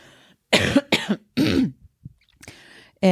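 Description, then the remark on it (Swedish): A run of harsh, raspy coughs, three in quick succession, then a short pause before a couple more rough coughs. No one speaks. “ursäkta nu måste jag hosta”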